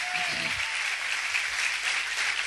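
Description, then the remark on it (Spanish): An audience applauds the Lord in a dense, steady wash of clapping that holds an even loudness for the whole stretch, with a brief murmur of voice underneath at the start. “Yo hubiera aplaudido más fuerte al Señor.”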